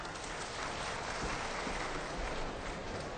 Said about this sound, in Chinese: 让我们以热烈的掌声欢迎韩再芬为大家演唱。